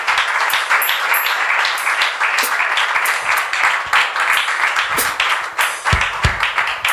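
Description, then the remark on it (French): An audience acclaiming God bursts into sustained, loud applause, a dense wash of clapping with sharper claps popping out now and then, holding steady for about seven seconds with no pause. “On va acclamer Dieu.”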